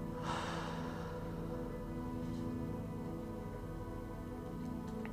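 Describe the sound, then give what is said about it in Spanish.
A deep breath drawn in and slowly let out during a guided breathing exercise, breathy, over a soft, steady humming drone, with no talking. “Vamos, metemos aire 1 y sacamos dos.”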